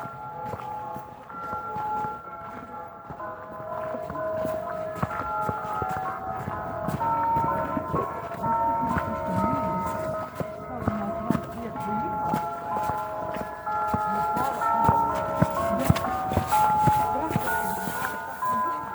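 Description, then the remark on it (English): Church bells ring out the national anthem at night when an air-strike alarm is over, a slow melody of overlapping, sustained chimes carrying steadily against a faint background rumble. “During the night alarms, church bells are easy to hear. They play national anthem when air strikes alarm is over.”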